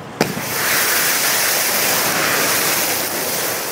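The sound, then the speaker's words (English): A sharp burst erupts into a loud, sustained roaring whoosh of a turkey grease fireball about two stories tall, set off by Fargo firefighters in a flaming turkey demonstration showing the worst case without safety measures; a dense rush of flame stays steady for several seconds with no voices. “Your explosion is huge.”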